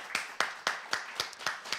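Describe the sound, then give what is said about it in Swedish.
Brief applause on Radio Total Normal after a text is read: about seven crisp hand claps in a steady, even rhythm, each a sharp bright smack, with no voices over them. “Jag tycker vi tar en applåd.”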